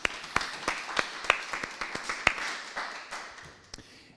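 Audience applause from a modest crowd, dense clapping with a few sharp individual claps standing out, steady for several seconds and then tapering off toward the end.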